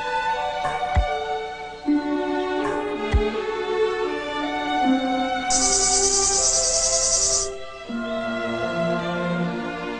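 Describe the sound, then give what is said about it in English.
A shrill cicada, clinging to a tree branch, screeches loudly for about two seconds, rising over a soft background of sustained musical tones and a couple of low thumps. “Good afternoon, screeched a cicada, clinging to a branch of a tree.”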